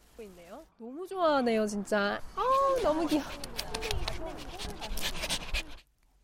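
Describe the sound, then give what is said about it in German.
Several dogs of various breeds, such as poodles, Spitzes, Shih Tzus, huskies and golden retrievers, play off-leash on a 3,500-square-metre meadow in a dog park, with high whining yelps at first, then busy panting, scuffling and scattered clicks of claws that keep going steadily before stopping abruptly. “Ungeachtet ihrer Körpergröße toben, springen und spielen sie miteinander.”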